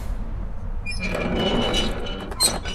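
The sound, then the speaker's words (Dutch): Small doors that had been left open are swung and shut, a rattling metallic clatter building for a moment before one sharper thunk near the end. “Ach, de deurtjes zijn ze vergeten dicht te doen.”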